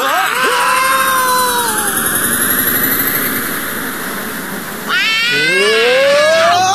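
A cat meows with a drawn-out wail at the start, then again with rising, insistent cries near the end, over a loud, steady mechanical droning hum.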